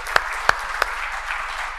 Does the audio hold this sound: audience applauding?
yes